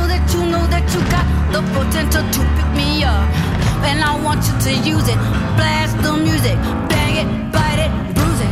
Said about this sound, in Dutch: ja, ik, ik hoor daar eh, zeker alternatieve rock in. Hola, uh, eh, alternative, goed geraden.